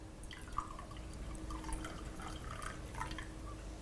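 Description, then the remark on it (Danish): More coffee trickles into a cup in a steady, bubbly stream with small splashing drips, fairly quiet and continuous for a few seconds, with no one talking. “Skal der være mere kaffe?”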